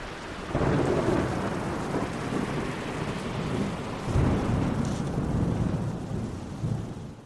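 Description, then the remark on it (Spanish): A heavy thunderstorm: steady, dense rain hiss with deep rolling thunder that swells in at the start and rumbles again midway, loud, with no voices. It stands for the storm that diverted Christopher Columbus from his route on his return from the Americas. “Una tormenta desvió de ruta a Cristóbal Colón cuando volvía de tropezarse con lo que luego se llamaría América, camino de las Indias.”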